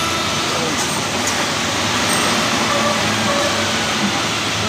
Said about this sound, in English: All right. I'll wait for this big truck to pass.